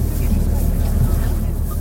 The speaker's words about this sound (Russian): И вот автобус трогается.